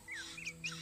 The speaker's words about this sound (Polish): Jest wczesny poranek. Temperatura nie jest jeszcze wysoka. Stado antylop spokojnie skubie trawę. W oddali majaczą zebry. Słychać śpiew ptaków.